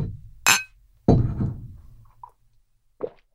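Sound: glasses clinking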